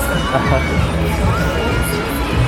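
A dense, loud funfair crowd fills the air, with children shouting and cheering over a constant hubbub of voices, punctuated by occasional shrill squeals.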